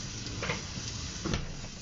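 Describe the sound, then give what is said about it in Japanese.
Food sizzles steadily in a hot pan, a constant crackling hiss with a couple of brief louder spits, fairly quiet, with no talking over it. “一応ね、臨場感を出すために今、ジュージューさせてますけどね。”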